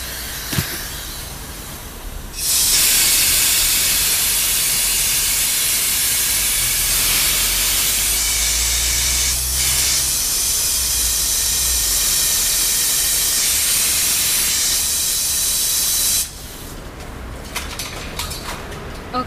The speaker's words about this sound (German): Also hier wird ganz sachte mit Sand sauber gemacht.